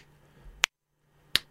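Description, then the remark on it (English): Two crisp finger snaps ring out about three quarters of a second apart, sharp against a faint low hum, with a brief moment of near silence between them. “So all the time, every anytime you can snap your, your fingers,”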